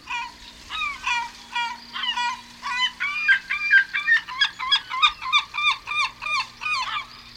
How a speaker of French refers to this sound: Et maintenant, les goélands. Alors, les goélands, pareil, il y a trois sous-marques. Il y a le goéland brun, le goéland argenté et le goéland marin. Mais a priori, si j'ai bien compris, ils font tous à peu près le même cri.